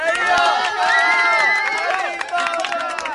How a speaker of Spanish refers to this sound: Hoy es uno de los pintores más reconocidos en todo el mundo, incluyendo Argentina. Pido un aplauso para el joven maestro del graffiti,